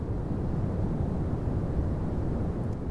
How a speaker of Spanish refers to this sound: Vamos con un ejemplo clásico de ruido blanco. Vamos a escuchar.